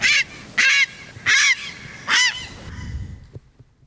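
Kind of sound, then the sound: bird, grey heron call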